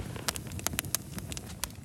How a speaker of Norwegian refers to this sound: så har vi fått fyr på bålet.